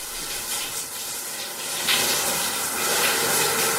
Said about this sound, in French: Attention, je rentre dans ma douche. Je vais laver mes fringues en même temps aussi.